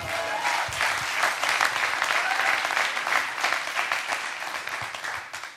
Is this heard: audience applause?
yes